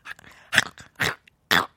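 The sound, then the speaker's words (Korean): A person imitates a dog up close, making three short, gruff bursts in a loose rhythm with softer chomping, snuffling noises between them, and no speech. “어, 그 강아지 소리 잘 나시네요.”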